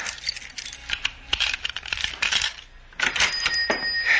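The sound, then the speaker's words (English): Keys jangle and clink in a flurry of bright metallic taps and rattles as someone fumbles them at a door lock, with a brief ringing shimmer near the end and no voices. “Stop fumbling with those keys. Open the door.”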